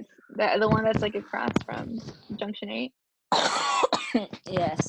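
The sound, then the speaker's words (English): A sharp, loud cough bursts out after a brief pause in a relaxed conversation, with people chatting and laughing before and after it. “Yikes, bless you.”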